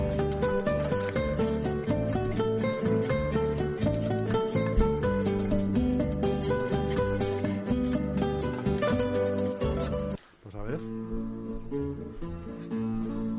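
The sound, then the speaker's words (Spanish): Spanish student minstrel band (tuna) music with busy strummed and plucked strings led by bandurria, playing loud and continuously, then briefly cutting out near the end before picking up again. “esto Esto es la tuna.”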